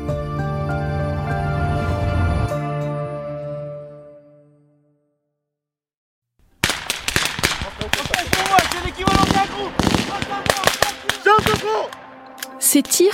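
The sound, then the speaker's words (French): A sustained tonal drone fades into a brief silence, then loud gunfire erupts during a French army training exercise, Operation Orion, in the Tarn: rapid, irregular volleys of sharp shots and bursts, echoing, continuing to the end. “vous entendez ne viennent pas d'une zone de guerre, mais d'un entraînement de l'armée française dans le Tarn.”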